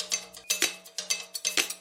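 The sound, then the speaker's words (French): A kitchen timer rings with a bright metallic clatter, pulsing in quick repeated bursts about twice a second, fairly loud and with no voices. “Minuterie”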